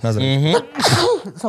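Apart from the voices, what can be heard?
sneeze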